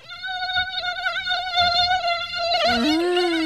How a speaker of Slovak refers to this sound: Otrasné. Neznašam. No ale patrí k letu. Patrí k letu, bohužiaľ. A nielen otravné komáre, ale všeobecne hmyz ako taký. A je to ozaj nepríjemné, keď nás poštípe.